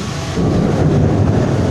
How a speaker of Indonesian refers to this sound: Sorry ya, sorry ya guys, ini lagi banyak petir-petir nih.